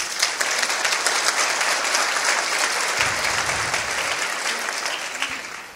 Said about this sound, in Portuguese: Então vamos aplaudir a Deus por isso.